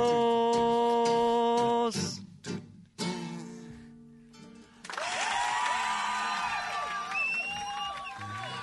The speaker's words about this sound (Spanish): aplaude la gente en la folclórica.